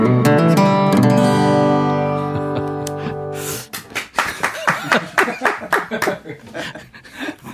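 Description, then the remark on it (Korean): A sustained musical tone fades out, then singers Lim Byung-soo and Kim Seung-jin, guests in a radio studio, clap in quick, uneven bursts for about four seconds, mixed with some light laughter. “임병수 씨, 김승진 씨가 지금 스튜디오에 들어와 있는데 박수를 치네요.”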